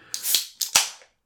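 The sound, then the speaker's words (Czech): Two sharp, breathy sneezes in quick succession, each a sudden hissing burst that fades quickly, with no talking around them. “na zdraví.”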